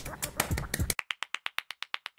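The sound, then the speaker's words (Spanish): A short burst of muddled voice and noise gives way to a single person clapping, about a dozen sharp, evenly spaced claps at a brisk, steady pace. “A ver, por favor, el rey aplaudiendo, ¿no?”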